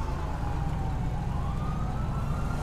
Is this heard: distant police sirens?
yes